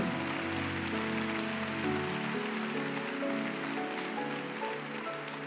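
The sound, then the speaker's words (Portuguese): An audience applauds God steadily, a dense continuous wash of clapping that holds an even loudness throughout, with sustained keyboard or organ chords playing underneath and no one talking. “Quando nós estamos dispostos se vai aplaudir, aplaude de verdade que ele é santo.”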